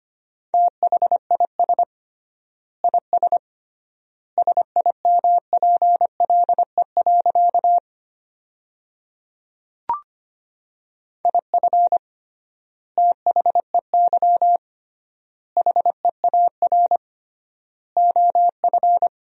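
A steady single-pitched Morse code tone keys on and off in rapid dots and dashes at 25 words per minute, sending sentences with triple word spacing, in clusters separated by wide pauses, with one brief click midway and no voices.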